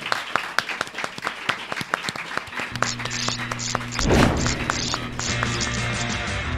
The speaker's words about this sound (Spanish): Eh, por ahora, aplaudir y así recibimos. Un aplauso para la zorra que todo lo sabe.